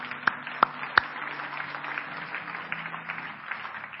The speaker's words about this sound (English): Yeah, go ahead and give the Lord a big hand clap this morning.